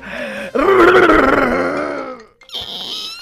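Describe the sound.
A man's voice imitates his father's loud, drawn-out groan that wavers in pitch for about two seconds, followed by a brief pause and a thinner, higher-pitched whimpering sound.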